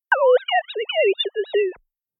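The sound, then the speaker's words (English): A few warbling, whistle-like synthetic tones glide up and down together in a speech-like rhythm: sine wave speech made by degrading a real spoken sentence, with no natural voice quality. About two seconds long and fairly loud. “Because again, this sine wave speech, it had been real speech before and it was just degraded.”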